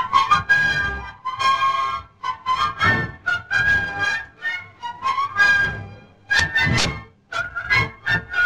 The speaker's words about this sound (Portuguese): Tem uma demo do Facebook que eles pegam um assobio de um maluco, um assobio tosco. E aplicam esse assobio numa textura de sonoridade de música clássica, orquestral.